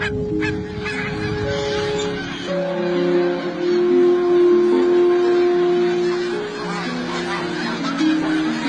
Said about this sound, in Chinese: 宝儿听到了天鹅的叫声，他抬头向天空望去。天鹅们已经成群结队地踏上了旅途，飞往温暖的南方。